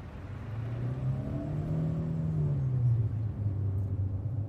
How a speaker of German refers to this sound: Mit einem nachdenklichen Blick schaut Adriana noch in den Rückspiegel, als sie das Auto von Nick und Yadisa wegfahren sieht.